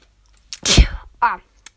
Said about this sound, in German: Ich muss gerade ein bisschen niesen, wie man wahrscheinlich gehört hat.